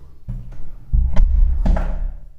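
door closing

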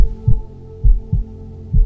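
heartbeat

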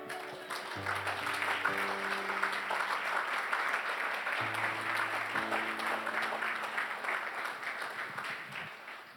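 audience applauding

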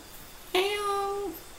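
cat meowing

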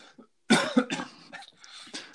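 coughing

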